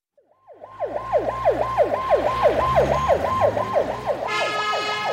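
An ambulance siren wails in fast repeating rising-and-falling sweeps, loud and steady, over a low engine rumble, with a higher tonal horn joining near the end.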